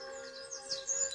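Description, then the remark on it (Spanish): Soft, high chirping bird calls flutter over a steady tonal hum, a few brief tweets rising near the end, fairly faint and with no one speaking. “De esta manera, con los cantos de las aves cerca de ti, seduce a tus oídos.”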